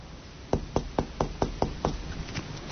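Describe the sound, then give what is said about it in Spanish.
A quick series of seven sharp knocks on a closed wooden bedroom door as a mother knocks, evenly spaced, then quiet room tone with no voices. “Del cuarto, entonces llega y toca.”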